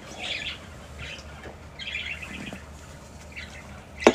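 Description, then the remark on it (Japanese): A small pet bird in a birdcage chirps several times in short, bright bursts over a quiet indoor hum, ending with a brief louder clatter. “いつもねこの鳥かごの横でね鳥ちゃんを眺めながらねご飯を食べてるんですけど”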